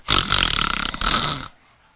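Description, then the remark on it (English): A man's voice imitates the loud snoring of people falling asleep in church in the early morning. There are two rasping, gravelly snorts, the first long and the second shorter, with no other talk around them. “And I watched some of them people fall asleep at 6.15 and 6.20 in the morning. Lay their head on the altar.”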